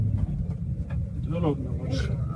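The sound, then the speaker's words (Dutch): A bus engine rumbles steadily, a heavy low drone while the vehicle drives on a mountain road, with a person speaking briefly over the noise. “En ik moet zeggen, de bus uh,”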